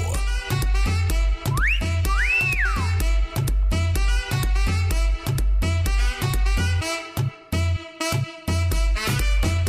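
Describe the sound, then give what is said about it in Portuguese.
Two sliding whistle blasts at the Brasil Rodeio event rise and fall early on, ringing out over loud, pounding dance music with a steady heavy beat that continues throughout. “Estamos chegando oh, no apito!”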